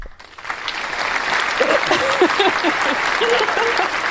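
A studio applause sound effect: sustained applause from a crowd, a dense wash of clapping that swells in over the first half second and holds steady for about four seconds, with a few faint voices mixed in.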